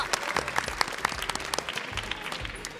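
A crowd claps steadily, many hands producing a dense, even patter of applause that holds for a few seconds at moderate loudness with no voices on top.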